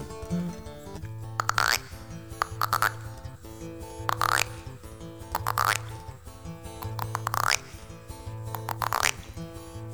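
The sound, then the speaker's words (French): A voice imitates frog croaks, a string of short, springy, bouncing calls repeated in a steady rhythm over a low sustained musical hum, moderately loud. “D'abord, elles ne parlent que le langage des grenouilles quand quelques-unes disent”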